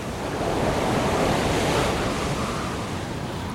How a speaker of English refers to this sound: Attu lies at the western end of Alaska's Aleutian chain, almost in Russia. Subarctic winds and North Pacific waves buffet this exposed island.